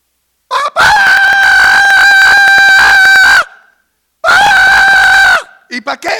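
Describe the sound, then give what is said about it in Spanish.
A voice imitates a trumpet with two loud, sustained, brassy blasts, the first long and the second shorter, followed by a few brief breathy bursts. “¿Cómo suena una trompeta?”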